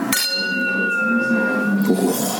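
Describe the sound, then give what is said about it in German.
Glasses clink together once in a toast, leaving a clear, steady ringing tone that slowly fades away over a couple of seconds, with no voices over it. “Stößchen. Hast du es gehört, wie es klingt, wenn es dann so abebbt?”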